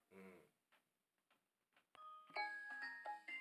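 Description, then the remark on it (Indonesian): A street chicken noodle (mie ayam) vendor's hand bell rings out loud, struck several times in quick succession with bright, lingering metallic tones, following a short vocal sound and a few faint clicks. “dia bawa bel tegan loh oh, oh mas orang bawa mie ayam”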